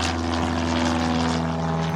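A propeller airplane drones steadily, its engine giving a loud, even hum with a constant low buzzing tone and a rushing wash of air, with no voices.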